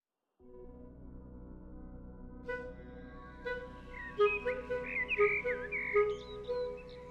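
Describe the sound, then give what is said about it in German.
A male common blackbird (Amsel), with black plumage and a bright yellow bill, sings a series of mellow, fluting warbled phrases that grow louder midway, over a steady low background hum, with no one talking. “Die Amsel ist eine begnadete Sängerin. Genauer, die Amselmännchen die mit dem schwarzen Gefieder und dem leuchtend gelben Schnabel.”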